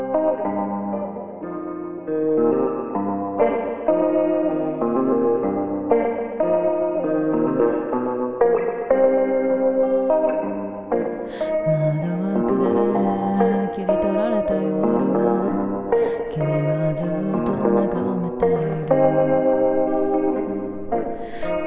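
A song plays steadily and fairly loud, a warm instrumental passage with echoing, chorus-like effects and layered chords. No singing is heard, and brighter high tones enter midway.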